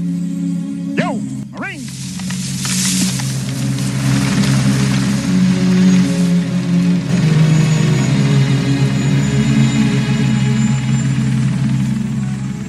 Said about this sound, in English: Ah, I'm not going on the helicopter with you.